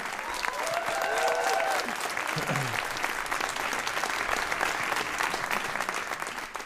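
Steady applause from a live audience in Kiel, dense clapping that fills the whole stretch at a fairly even level, with a few faint voices and whoops mixed in near the start.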